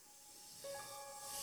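A snake roughly eight feet long hisses inside a house, like air escaping from a valve: one sustained, breathy rush that swells slightly louder over a second and a half, with a faint whistling tone running through it. No one speaks.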